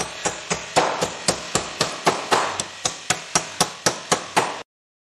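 Rapid, evenly spaced hammer strikes, about sixteen sharp metallic blows in under five seconds, loud, with no voices, ending abruptly in silence.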